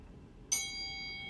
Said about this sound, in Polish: Jest dzwonek.